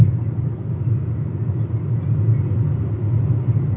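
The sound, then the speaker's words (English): A steady, low rumble fills the cabin of a moving car, a continuous droning road and engine noise with no speech or distinct events over it. “I can't Google things. I'm in my car.”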